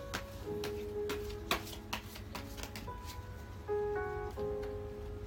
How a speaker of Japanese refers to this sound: あ、6時だ。お外のあの、お外で鐘が鳴ってます。あの、夕焼け小焼けでの歌が鳴り始めました。